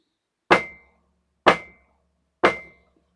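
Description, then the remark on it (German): Three sharp knocks on a door, evenly spaced about a second apart, each a hard thud with a brief ringing tail. No voices. “Siehe, ich stehe vor der Tür und klopfe an.”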